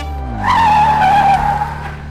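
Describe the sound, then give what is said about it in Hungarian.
A loud, sustained tire squeal wails for about a second over a low engine rumble, forming a short car-themed jingle with no speech. “de mielőtt szólítjuk kedves vendégünket, engedjétek meg, hogy egy szignált bejátszak méghozzá ezt.”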